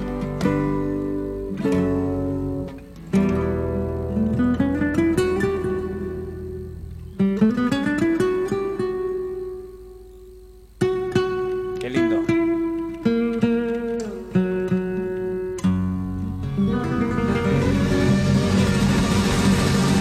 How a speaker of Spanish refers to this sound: Escucha. La guitarra